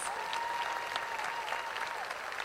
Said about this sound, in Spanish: Y quiero pedir un fuerte aplauso para todos ustedes que hacen que este festival sea único todos los años. Muchas gracias.